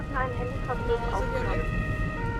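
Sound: police car siren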